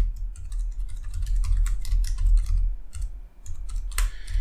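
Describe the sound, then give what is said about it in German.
Rapid, irregular clicking of keys on a computer keyboard as someone types a note, with steady typing bursts and a low background hum; a sharper clack near the end, no voices. “Hallo, ich würde gerne tippen. Auf meiner Tastatur, auf meinem Dingensbummens.”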